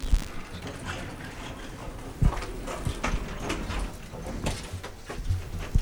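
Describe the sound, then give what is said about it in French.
Footsteps tap unevenly across a hard floor, with the clunk and slide of a door opening as people enter a town hall from its back courtyard, over a steady background hum and no one talking. “Et donc, on va rentrer. La porte est ouverte.”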